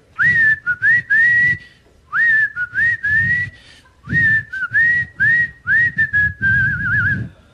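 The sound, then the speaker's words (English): A person whistles a bouncy, catchy theme-song melody that was played between films, in short phrases, the clear pitched notes sliding and repeating at an even pace, loud with no talking. “They had their own theme song that they played in between their movies. It's stupid. It was a whistle.”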